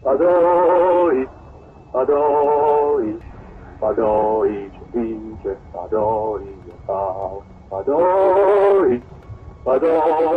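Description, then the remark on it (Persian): A lone voice, that of guerrilla leader Hamid Ashraf, sings the recorded anthem of an Iranian guerrilla organization that opposed the Shah before the 1979 revolution, set to the rhythm of the Palestinian national anthem: steady, rhythmic phrases, loud sustained notes separated by brief pauses, no clear instrumental accompaniment. “اما یکی دیگه از سازمانهای چریکی مهم مخالف شاه پیش از انقلاب هم سرودی داره که با صدای رهبر این تشکیلات یعنی حمید اشرف ضبط شده”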